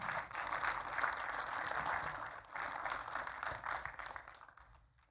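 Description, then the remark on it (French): An audience applauds the Lord for a few moments, a dense, steady wash of many hands clapping that holds for several seconds with slight swells before tapering off at the end. No voices are heard. “On peut applaudir le Seigneur quelques instants?”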